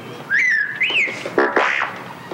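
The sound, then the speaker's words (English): The droid R2-D2 on Sesame Street beeps and whistles, wanting to sing the alphabet song: a wavering high whistle that dips and rises, followed by a few buzzy, warbling electronic chirps, fairly loud with no talking. “R2 says he'd like to sing your alphabet song as well.”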